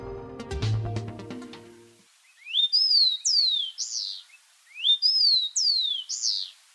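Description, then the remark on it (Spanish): After a brief burst of music, a rufous-collared sparrow (copetón común) sings its clear whistled song twice in a row: a few sliding notes ending in a quick trill, prominent. “Este es el copetón común, que se puede escuchar y observar en Bogotá casi en todas partes y a todas horas.”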